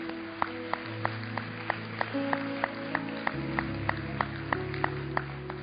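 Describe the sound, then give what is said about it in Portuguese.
An audience claps together to give glory to God during a sermon, in a steady, even beat, sharp claps repeating about three times a second over sustained keyboard or organ chords, with no talking. “aplaude, aplaude.”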